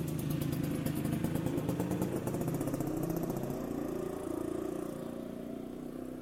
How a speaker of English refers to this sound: Sorry about that. It's not very much traffic here, but you know, once in a while.